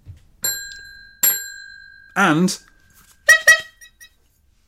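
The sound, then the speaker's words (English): Two bright pings ring out a moment apart, their tones lingering, then after a brief spoken word come two quick horn honks in succession. “two pings, two honks.”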